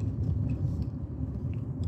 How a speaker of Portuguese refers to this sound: Puta fila do caralho, eu vou por dentro aqui. Tá foda, hein? Olha o trânsito que os caras estão formando. Mas também, meu amigo, sexta-feira, final de tarde.